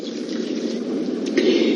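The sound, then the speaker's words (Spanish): A steady stream of water from a cup pours into a cooking pot of purslane (verdolagas) being set to boil. It makes a continuous splashing gurgle that holds even for nearly two seconds, growing slightly fuller toward the end, with no talking. “Le ponemos esta taza de agua,”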